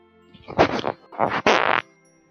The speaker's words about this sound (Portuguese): Caralho, velho, você enfiou o microfone no cu agora pra você peidar.